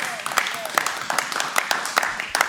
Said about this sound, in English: Now, clap your hands if you believe it right there.